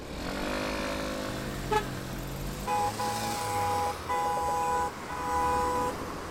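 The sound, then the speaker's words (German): Busy road traffic in Berlin heard while cycling: an engine's pitch glides as a vehicle passes, followed by three sustained car horn honks in quick succession over a steady traffic rumble, with no talking. “Und ich habe so eine kleine Collage mal zusammengeschnitten und das hört sich so an.”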